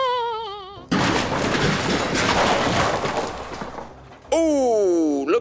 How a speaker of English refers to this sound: Looks like Banana Stand Lady has run directly into the shoreline while she was busy gloating. Her boat might be damaged beyond repair.